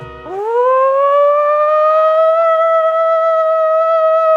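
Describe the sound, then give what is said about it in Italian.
An Espiratutto 3000 vacuum cleaner switches on, its motor pitch sweeping upward within half a second into a loud, steady, piercing whine that holds for several seconds before cutting off abruptly. “Un rumore che tenta di arrivare alle onde sonore non udibili ma resta su quelle che ti lacerano la parete timpanica.”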